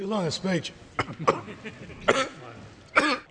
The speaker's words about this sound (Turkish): Avustralyalı bakanı mecliste öksürük krizi tuttu. Uzun süre konuşamayan bakan test sonucu çıkana kadar kendini karantinaya aldı.